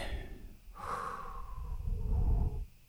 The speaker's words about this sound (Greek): Πάμε να το κάνουμε μια φορά. Ανάσα, εισπνοή, εκπνοή